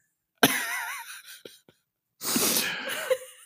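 Breathy giggling through the nose: a sharp snorting burst of high-pitched laughter, a couple of tiny clicks, then a longer rush of airy nasal breathing and stifled giggles.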